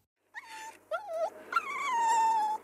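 A sleeping dog whimpers in three drawn-out, high whines, each sliding downward in pitch, the last one longest, fairly clear with no one talking.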